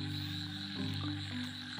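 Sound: frogs croaking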